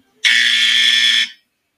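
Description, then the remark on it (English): A single loud, harsh buzzer blares for about a second, a steady raspy electronic tone that cuts off abruptly, with silence before and after. “I'm really ringing the buzzer on this shit.”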